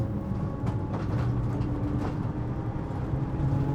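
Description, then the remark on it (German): Steady, loud cabin rumble heard from the back of a moving ambulance with no siren, a deep engine drone and road noise, occasional rattles and clunks, no voices. “Es ist auch ohne Sirene laut in diesem Wagen.”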